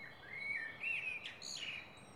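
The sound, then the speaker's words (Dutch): A blackbird sings in the morning, a flowing, warbling phrase of clear whistled notes, rising and falling over about two seconds, heard alone and fairly faint against a quiet background. “Tijd voor een praatje met de medemens en ochtends gewekt worden door een mereltje. Mijn mereltje.”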